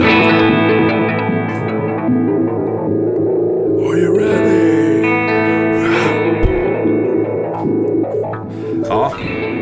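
A looped electric guitar phrase, recorded with a looper pedal, plays continuously and loud, layered with heavy effects, reverb and echo, sustained harmonic tones stacking and repeating for the whole stretch.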